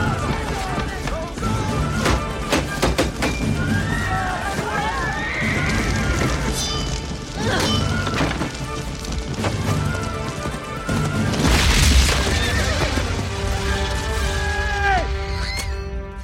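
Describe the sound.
A horse whinnies amid clattering hooves in a loud, chaotic scene full of crashes and thumps, with voices shouting underneath throughout.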